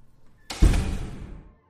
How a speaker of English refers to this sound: You retreat back through the shiny door that you entered and you close it.